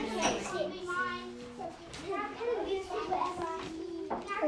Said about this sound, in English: small people who are making lots of noise.